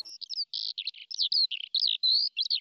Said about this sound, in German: das hier ist der Kracher, die Zwitscherbox. So ein kleiner Kasten mit Lichtschranke. Wenn du daran vorbeigehst, zwitschern so Vögel. Hör mal.